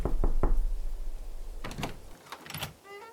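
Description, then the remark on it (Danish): Three quick, sharp knocks on a wooden door frame, fairly loud, followed by a brief scraping, rattling movement and a short high squeak. No one speaks. “Banker lige på dørkampen.”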